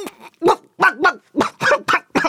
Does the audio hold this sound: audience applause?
no